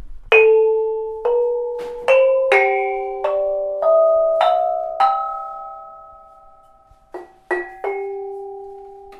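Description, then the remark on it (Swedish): A Cambodian gong circle, a furniture-sized instrument the player sits inside, with its pot-shaped gongs struck one at a time in a slow, wandering melody, each bright metallic note ringing on and overlapping the next, fairly loud with no voices. “Och eh, så är det en massa symboler som är formade som, jag vet inte, kastruller och låter så här.”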